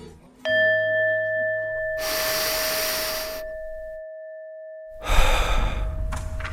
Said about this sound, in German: Es geht um Spiritualität und wir atmen. Wir atmen zusammen, um uns erstmal darauf einzustimmen.